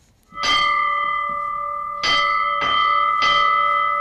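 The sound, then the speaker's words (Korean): A country school's metal bell rings out in four clear, resonant strikes, each with a bright metallic attack and a long sustained ringing tone that overlaps the next, signalling the start of class. No one speaks. “시골 학교의 종소리입니다.”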